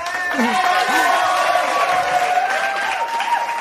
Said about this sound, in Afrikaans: Kom ons klap weer